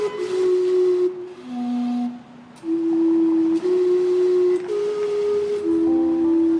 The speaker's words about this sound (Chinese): 你听，威斯敏斯特报时曲在蒸汽的轰鸣中，效果是不是很不一样呢？